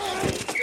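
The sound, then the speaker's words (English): A quick burst of dull, padded thuds and clacks of football pads colliding, with a couple of impacts in under a second over a faint tonal hum. “The collide of football pads.”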